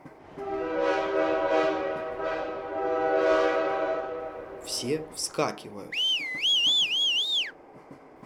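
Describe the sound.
A steam locomotive sounds long, loud alarm whistle blasts, rising and falling in pitch, as the train slows down in a blizzard. A voice briefly speaks, then a shrill, wavering whistle follows.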